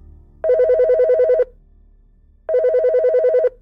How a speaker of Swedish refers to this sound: Sladdtelefonen. Jag kom ihåg reglerna. Jag lyfte upp telefonen och placerade den mot örat och såg till att hålla koll på tiden.